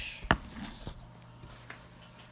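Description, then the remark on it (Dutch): A just-locked smartphone running iOS 10 is set down on a table with one sharp knock, followed by a few faint taps and light handling noises against a quiet background. “Ik leg hem neer.”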